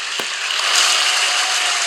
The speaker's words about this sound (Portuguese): Palmas, muitas palmas.